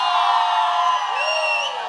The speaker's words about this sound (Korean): 네, 한 300명이 객석을 꽉 채워주셨어요 맞습니다 아직 자, 지금 바깥에는 입장을 못 하셔가지고 아직 지금 줄을 서고 계셔가지고 네, 지금 입장하신 분들만 먼저 함성 그러니까. 한번 소리 한번 질러주세요 어서 오세요